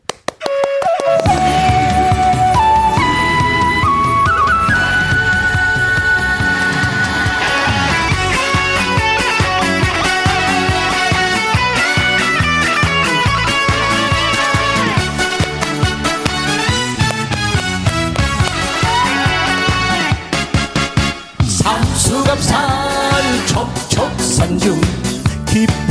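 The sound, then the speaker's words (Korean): A new song is played on air, loud and continuous, opening with a rising melodic line over a full, dense instrumental arrangement, with a brief break near the end before the music surges back. “바로 그 새 노래 들려드릴게요.”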